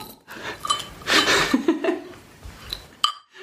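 Glasses clink together in a toast, a couple of bright ringing taps spaced a few seconds apart, with breathy laughter and soft rustling between them.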